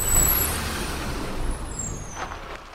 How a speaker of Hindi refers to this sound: पूरे कुंबे की छाती पर तब पटेला चल गया जब ईंटों भरा ट्रक अम्मा के आंगन में खाली किया जाने लगा